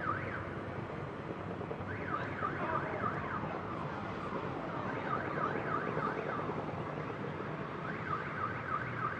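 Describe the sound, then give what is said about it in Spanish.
Car alarms wail outdoors in the streets of Bogotá with rising and falling electronic whoops that repeat in bursts, overlapping one another over a steady wash of city and crowd noise, set off by fireworks as Independiente Santa Fe fans celebrate. “Bueno, con la pólvora, los fuegos artificiales y todo eso, pues algunas alarmas de los coches suenan también.”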